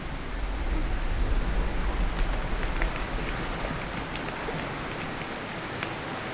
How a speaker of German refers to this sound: Der Regen wurde lauter.